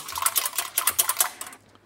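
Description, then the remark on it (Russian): A whisk beats an egg in a bowl with rapid, rhythmic metallic clatter, fairly loud, running steadily for about a second and a half before stopping. “О, смотри, это гениальный венчик, смотри, какой звук.”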